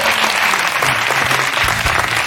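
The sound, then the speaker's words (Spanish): Steady audience applause fills the whole moment, a dense, loud wash of many hands clapping at once with a faint murmur of crowd underneath. “Gracias por el aplauso.”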